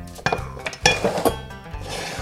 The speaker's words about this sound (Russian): Грибы мы обжарили, берем сметану, положим туда вот эту вот муку, которая у нас тоже немножко такая обжаренная, и положим в эту муку и тщательно все перемешаем.